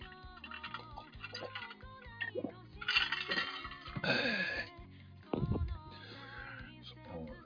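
Glasses clink together in a toast, a few bright ringing taps spaced over several seconds, with people chatting and laughing around them.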